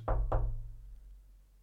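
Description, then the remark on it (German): Two quick knocks on a door in close succession, solid and resonant, followed by a fading low hum with no voices. “Einmal klopfen ist gar nichts.”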